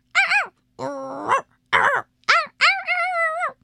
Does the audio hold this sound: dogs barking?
yes